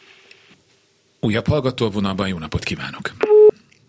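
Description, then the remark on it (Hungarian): A man speaks briefly in Hungarian, then a single short, steady telephone tone sounds loudly at the end, like the start of a busy signal, as a listener's phone call to a radio program drops. “Megszakadt nem baj, addig van egy csomó SMS-ünk, úgyhogy mondom onnan.”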